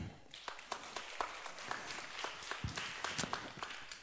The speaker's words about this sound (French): On peut l'applaudir